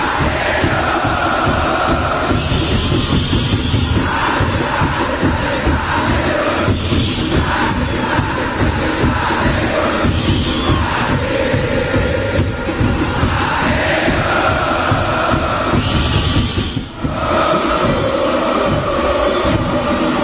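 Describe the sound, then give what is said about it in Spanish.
A stadium crowd of Olimpia fans sings and chants loudly in unison before their team's match against Maratón, with repeating rhythmic phrases over a steady roar and no pauses for the full twenty seconds. “pero ayer Olimpia salía con absolutamente todo, salía con su equipo estelar frente a un maratón que también mandaba un muy buen once titular, pero que la previa, la previa a la 31, la previa al partido, se escuchaba así.”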